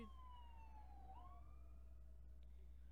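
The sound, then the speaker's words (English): A police siren wails past, its tone sweeping down and then rising again as it goes by, over a steady low rumble of traffic. No one speaks. “I guess a police officer was driving by. A police car, not a police officer.”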